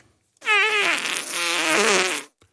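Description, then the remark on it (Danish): A long, loud fart lasting nearly two seconds, starting with a wavering buzz and shifting into a rougher, sputtering rasp before cutting off, with a tiny blip afterward. “Flautulens. Ja. Prut.”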